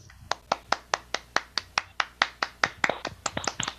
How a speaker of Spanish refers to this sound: Y, para aquellos que se quedaron y que hoy lo, recuerdan a cada ser eh, familiar, amigo que, estuvo ahí y que cayó, pues un aplauso para ellos y, qué valientes aquellos que se quedaron y que siguen aquí.